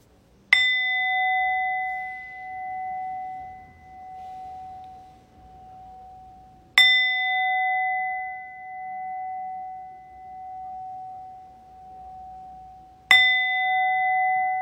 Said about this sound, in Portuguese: A única coisa que vai acontecer é que eu só vou tocar o sino uma vez, agora três vezes no começo e uma vez no final. Não vou tocar o sino no intervalo entre as duas meditações.